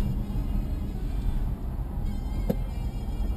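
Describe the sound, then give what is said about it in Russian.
A steady low rumble of idling car engines in a heavy traffic jam with all cars standing still, continuous, with a brief sharp click or knock partway through. “Вот сильный трафик, сильная пробка и прям все стоят.”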